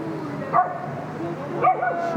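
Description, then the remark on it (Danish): Two short dog barks about a second apart, not very loud, over a steady low background hum. “Så er der lige gang i hunden.”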